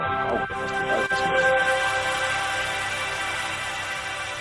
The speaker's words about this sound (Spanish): ese es el sonido de, la Xbox, y se supone que el de la nevera es el mismo.